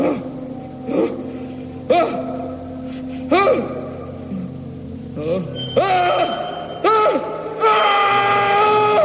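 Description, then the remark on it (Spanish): A man asleep with his head on a table beside a typewriter lets out a series of anguished, gasping cries that grow louder and build into a sustained, strained scream near the end, over a low, steady droning background. “Jack yace inmóvil con la cabeza sobre la mesa al lado de la máquina de escribir. Grita en sueños.”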